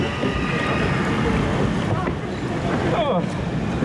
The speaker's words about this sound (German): Das ist das ruckelig, ja, mein Rücken. Gottes Willen. Au. Ja, noch schlimmer als heute Morgen. Ja, ja schneller. Scheiß Boot erwischt.